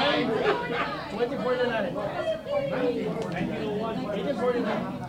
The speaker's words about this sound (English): I can hear them talking up here, but I don't know what's going on. It's Oh, oh, they're playing a game.